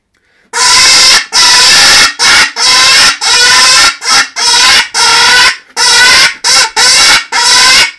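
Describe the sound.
A loud, shrill squealing call from a pig-style game caller fitted with an extended telescopic tube, which lengthens the path of the high sound and makes it slightly deeper and more lifelike, sounded in a rapid series of about a dozen harsh, nasal bursts of varying length, with no voices.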